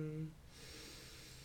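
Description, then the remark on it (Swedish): A brief low voiced tone gives way to a slow, deep, steady, airy breath drawn in during a guided exercise of three deep breaths, soft but clearly audible and lasting about a second. “Och andas in.”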